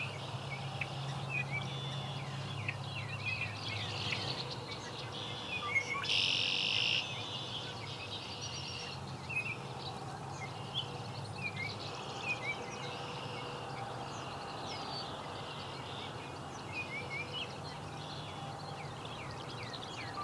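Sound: song sparrow singing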